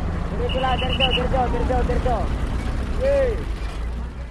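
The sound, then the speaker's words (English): Heavy machinery rumbles steadily at a massive garbage dump on the outskirts of Manila, Philippines, with garbage truck and bulldozer engines whining up and down as trucks unload garbage, a brief high beep early on, and clanking mechanical noise. “Here, trucks roll in every few minutes to unload garbage from Metro Manila's 12 million residents.”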